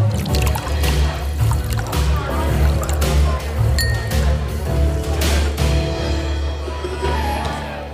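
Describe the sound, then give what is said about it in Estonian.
A drink is poured from a bottle, a steady gurgling trickle running for several seconds with a few light glassy clinks scattered through it. “ja kohe valame välja ka.”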